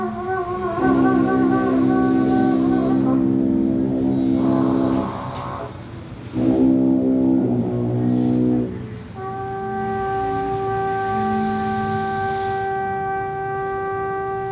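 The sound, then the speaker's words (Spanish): At a university during lunch, a tuba, trumpet, clarinet and musical saw hold long, overlapping notes in a strange, dissonant drone, fairly loud. The reedy swell breaks off midway, and a thin, pure, wavering tone carries on alone. “vienen sonando dos bronces y una madera, una tuba, una trompeta y un clarinete, a los que acompaña una sierra que, a lo lejano, parecen caer perfectamente en esta disonancia extraña que suena siempre aquí.”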